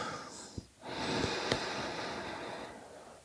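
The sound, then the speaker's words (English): A long, deep breath drawn in through the nose on the count of eight in a guided breathing countdown, a steady airy hiss swelling over about two seconds, fairly loud, with no talking. “Breathing in on eight”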